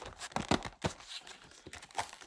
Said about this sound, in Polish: Mikrofon zapakowany jest w blistrze. Taki dźwięk wydaje blister.